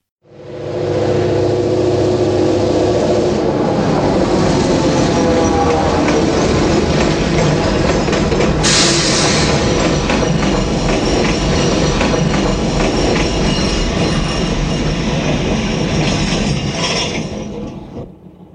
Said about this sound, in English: So it begins with the drifter Hal Carter, played by William Holden, arriving in Kansas on a freight train as a stowaway, and it's Labor Day weekend.